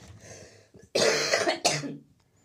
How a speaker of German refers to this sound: Achtung, ich huste.